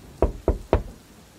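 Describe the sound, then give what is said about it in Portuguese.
Three firm knocks on a door in quick, even succession, fairly loud, followed by quiet. “E eu bato na porta. bato três vezes na né? porta.”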